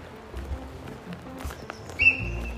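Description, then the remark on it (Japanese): A deer's short, high-pitched alarm call, a sharp whistling squeal near the end, rising out of quiet outdoor background with a few faint scattered taps before it; the deer then runs off. “おお来た鹿だ今聞こえたかな音ピッてピッて言ったでしょ鹿だな走ってった”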